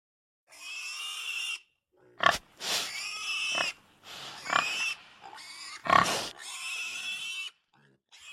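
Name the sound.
pig grunting and oinking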